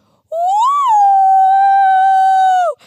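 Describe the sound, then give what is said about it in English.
A person imitates a shepherd's call to gather sheep: one loud, sustained, high-pitched vocal cry that swoops up briefly, then holds a steady tone for over two seconds before cutting off. “And so at the end of the day, when it starts to get cold and it's the sun is setting, the first shepherd gets up from where he is and he begins to make a really weird noise that kind of sounds like this.”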